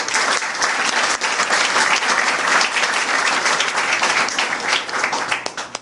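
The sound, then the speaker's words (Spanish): Steady, dense applause from an audience, many hands clapping at once in a loud continuous wash that holds for several seconds and tapers slightly toward the end. “Dense un aplauso para que sigamos”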